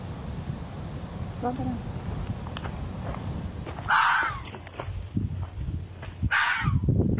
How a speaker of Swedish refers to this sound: stirrade på oss hela tiden, stannade då vi stannade och den skällde, så det var lätt att hålla den under uppsikt. Till sist satte jag musik på och sen sprang den bort. Varför gjorde den så och vad ville den? Vi kanske ska lyssna till det här skallet.